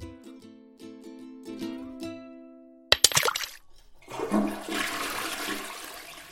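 A few bars of light plinking tones give way to a sharp clunk, then a toilet flushes with a loud, sustained rush of swirling water that carries on to the end.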